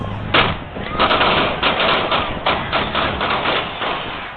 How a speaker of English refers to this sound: An estimated 1 million people had gathered for a victory parade to revel in the Kansas City Chiefs' latest Super Bowl win. While the formal rally had ended, some players were still on a stage outside Union Station when gunshots rang out.